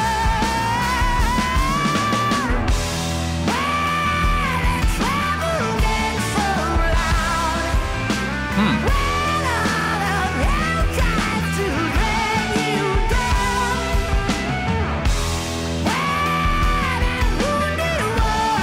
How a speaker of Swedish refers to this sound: Ja, men 67 på Woodstock, absolut. De är ett amerikanskt rockband från Frankenmuth, Michigan.